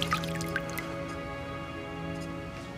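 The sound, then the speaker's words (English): Several crisp drips of liquid fall in quick succession at the start, then thin out, leaving a steady low hum in the background. “Stand back, let it drip.”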